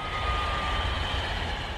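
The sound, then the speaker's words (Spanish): A high-speed train on Spain's Madrid–Seville line roars past at 250 km per hour at a steady, loud level, with a deep rumble underneath and a thin mechanical whine on top. No voices. “Para terminar, nos trasladamos a 1992 y lo hacemos a 250 km por hora.”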